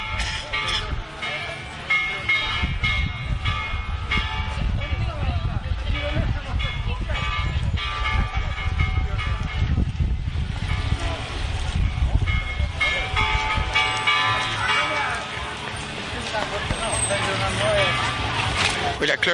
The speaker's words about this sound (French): c'est la cloche du monument aux enfants, donc qui est dans le parc de la paix. C'est un monument qui est donc dédié aux enfants qui sont morts avec la bombe atomique. Et euh, oui, les gens euh, font sonner la cloche